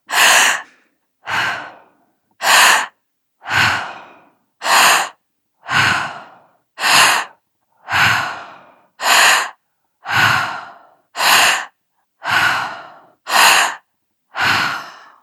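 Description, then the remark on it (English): Rhythmic, forceful breathing exercise done through the mouth and focused in the chest: about fourteen loud breaths pushed out at a steady pace of roughly one per second, each a sharp whooshing burst separated by brief pauses, with no talking. “and then once your breath is full, it just comes out.”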